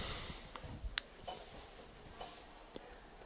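A watch ticks with a handful of sharp, light clicks spaced unevenly over a quiet, hissy background, soft; no one speaks.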